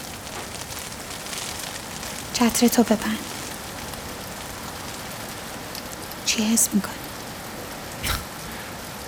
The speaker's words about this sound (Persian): بارون داره میزنه رو صورتم